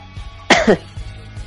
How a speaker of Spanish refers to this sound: Hasta me hicieron toser, mendigos.